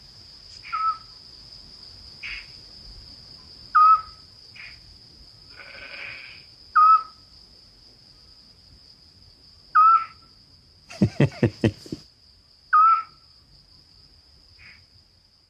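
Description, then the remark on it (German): At night, a Eurasian scops owl gives short, clear whistled notes, one every few seconds, over a steady high trill of crickets. A quick burst of laughter breaks in midway. “Äh, das ist die Zwergohreule.”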